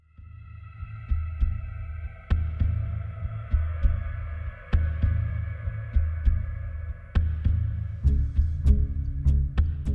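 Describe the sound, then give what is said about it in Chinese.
The main background theme music of the video game Borderlands 2 plays on its own: a steady bed of sustained, droning tones over heavy low throbbing pulses that hit at irregular intervals, growing busier toward the end. “现在大家听到的这个背景音乐可能呃声音比较小，其实是来自于呃《无主之地二》的主呃背景主题音乐。”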